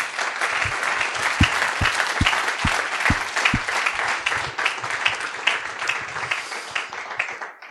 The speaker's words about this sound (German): Aber das, ähm, vielleicht machen wir das einfach mal. Ein Applaus für alle, die heute am Gottesdienst beteiligt sind.